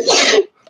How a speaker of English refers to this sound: wow, bless, bless you.